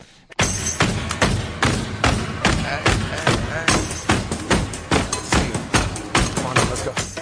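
A radio show's theme jingle: loud, dense music driven by a steady, punchy thumping beat that pulses evenly for several seconds after a brief quiet start.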